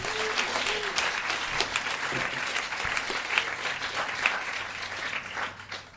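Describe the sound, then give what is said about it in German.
An audience applauds steadily, a dense wash of many hands clapping at a moderate, even level for several seconds before starting to thin out at the end. “Kleiner Applaus für Herrn!”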